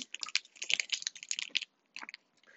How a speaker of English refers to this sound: sorry if you can hear me eating by the way.